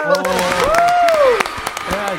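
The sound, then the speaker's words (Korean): Brisk, scattered hand clapping from a small group celebrating clearing a game stage on a show, with voices whooping and talking over the claps throughout. “짝짝짝짝짝 박수짝 짝짝”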